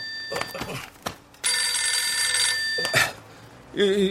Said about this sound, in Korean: 너 전화 오는 것 같은데? 뭐? 그 휴대폰.